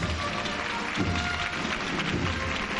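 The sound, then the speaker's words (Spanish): A street crowd at a religious procession breaks into sustained applause as the float of the Esperanza takes a step back: a dense, steady wash of many hands clapping at once with a faint murmur underneath, holding at an even level throughout. “Y es automático, un pasito para atrás y los aplausos que se arrancan porque permite ver más tiempo a la esperanza.”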